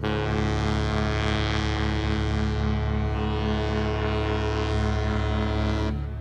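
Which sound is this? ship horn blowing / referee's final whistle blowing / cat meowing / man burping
ship horn blowing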